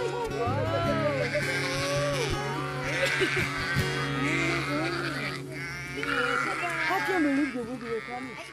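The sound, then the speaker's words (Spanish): A flock of sheep bleat over and over, wavering cries overlapping against a steady low hum, with people talking faintly underneath. “Yo me imagino que eso es oveja, ¿verdad?”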